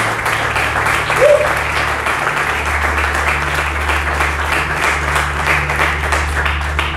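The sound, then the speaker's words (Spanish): A church audience applauds God loudly and steadily, a dense wash of many hands clapping that holds at an even level throughout, with a low hum running underneath. “Y le dan un fuerte aplauso a nuestro Dios.”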